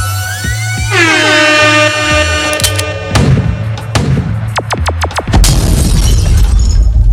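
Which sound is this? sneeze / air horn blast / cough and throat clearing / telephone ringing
air horn blast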